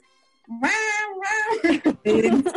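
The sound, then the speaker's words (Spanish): A cat lets out a long, loud, drawn-out meow, followed by a few shorter, wavering meows in quick succession. “Claro, primero nos avisaron los gatos.”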